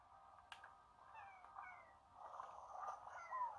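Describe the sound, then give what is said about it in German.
A cat-like slime creature in a video game meows softly several times, short whiny cries over a faint steady background hum, growing a little louder toward the end. No one speaks. “Ich höre schon den Sound von Theas.”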